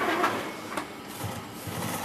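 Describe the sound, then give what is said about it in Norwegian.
A sailmaker's sewing machine stitches sailcloth in a steady, rapid mechanical whir, with a brief sharp clack partway through and a low rumbling hum underneath. No one speaks. “kaster seg over symaskinen igjen”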